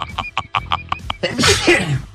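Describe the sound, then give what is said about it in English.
A quick run of short, choppy laughs is followed by a single loud sneeze, a sharp burst of breathy noise that trails off. “Bless you”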